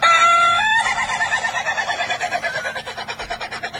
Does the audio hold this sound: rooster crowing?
yes